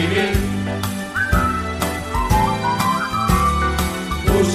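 A clear whistled melody rises and dips over a steady instrumental accompaniment with bass and strummed chords, fairly loud, with no voices.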